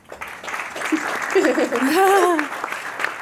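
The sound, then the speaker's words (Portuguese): A short burst of crowd applause added as a sound effect, a dense wash of clapping lasting about three seconds, with a voice cheering in a rising-and-falling whoop partway through. “Palmas, vou colocar barulho de palmas.”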